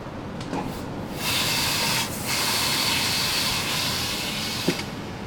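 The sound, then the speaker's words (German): A mesh-covered drum filter cleans itself with water spray: a steady, loud hiss of spraying water kicks in after about a second, with a brief dip around two seconds, over a low mechanical rumble; a small knock near the end. “Und wenn der dreckig wird und verschmutzt ist, dann muss der sich mit der Zeit reinigen. Das tönt dann etwa so.”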